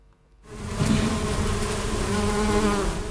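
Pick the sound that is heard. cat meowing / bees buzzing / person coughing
bees buzzing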